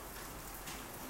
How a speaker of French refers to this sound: Est-ce que vous entendez avec moi ce son de background C'est le son de la pluie.